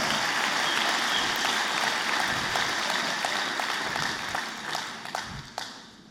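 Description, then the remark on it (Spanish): A crowd applauds in a dense, steady burst of many hands clapping at once, holding strong for several seconds before thinning out into a few scattered claps at the end. No one speaks. “Ah, no quieren aplaudir, ¿verdad?”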